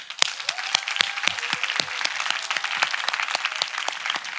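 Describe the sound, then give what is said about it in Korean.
An audience at a religious gathering breaks into applause for the young adults attending, a dense wash of many hands clapping steadily with sharper individual claps popping through, holding a fairly even loudness throughout. “이렇게 귀한 집회를 너무 다급하게 열어서 휴가도 못 내고 매매 왔다 갔다 하는 우리 매매 왔다 가는 청년들한테 박수 좀.”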